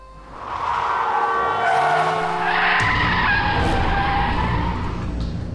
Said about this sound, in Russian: В этот момент раздался оглушающий визг тормозов вперемешку с гудением.